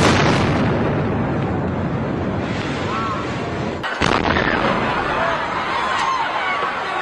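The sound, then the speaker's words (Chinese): The two bomb explosions at the Boston Marathon on the afternoon of 15 April 2013: a heavy, roaring blast fills the opening, then a second sharp boom cracks out about halfway through, with faint shouting voices amid the rumbling noise. “当地时间二零一三年的四月十五号下午，波士顿国际马拉松比赛的现场突发两起爆炸，造成三人死亡，超过二百六十人受伤，震惊了美国社会。”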